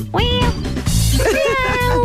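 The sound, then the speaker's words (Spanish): A person imitates a cat, giving a series of drawn-out, wavering meows, loud, with pitch sliding up and down between short breaths. “Más que gato parece el ratón, eh, la rata Splinter, la tortuga niña. De nuevo, de nuevo, de nuevo, por favor.”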